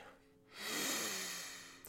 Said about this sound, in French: Inspiration, expiration. Respiration profonde et maîtrisée. Relâchement, relaxation.